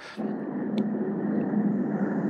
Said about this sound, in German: oh, jetzt hört man. Hört man das? Ja, das hört man. Hier daneben ist ein Krankenhaus und da ist gerade ein Helikopter angekommen. Oh, der ist jetzt aber gleich weg jetzt.